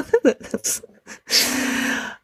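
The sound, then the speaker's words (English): A raspy snore from a puppy lying on a lap rises into one long, breathy drawn-out rumble, after a brief stretch of soft voice-like sounds at the start. “in between your coughing and my puppy's trying to chew things and snoring right now, if you can hear snoring, I've got one on my lap.”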